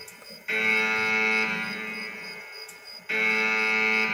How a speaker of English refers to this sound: Hit the alarm on these bitches.